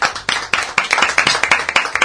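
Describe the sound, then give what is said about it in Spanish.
A short burst of applause from a small group, the claps loud in a steady, quick rhythm for about two seconds with no talking. “Les damos un aplauso.”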